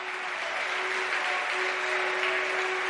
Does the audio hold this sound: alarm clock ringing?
no